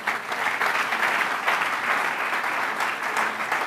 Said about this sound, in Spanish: ¿Cuántos dan un aplauso al Señor?